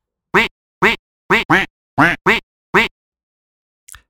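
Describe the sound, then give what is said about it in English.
A duck quacks seven times in a quick, uneven rhythm, loud, followed by a brief faint click after a pause. “We're, we're going with a quick one, and it is simply Duck.”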